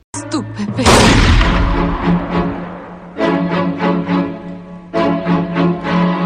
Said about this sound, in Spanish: De hecho, el balazo de Bill me puso en coma.